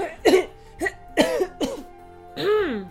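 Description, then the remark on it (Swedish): Someone coughs from strong smoke in a run of five harsh, ragged bursts, the last drawn out and raspy, with no talking around them. “För en kort stund så kan du bara hosta.”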